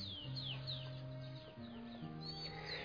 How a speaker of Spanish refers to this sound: Gracias por el sol que se oculta, por las aves que ya están yendo a sus nidos.